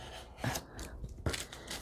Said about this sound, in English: So again, the blade is so sharp, it's like really pulling the paper. That's so sharp.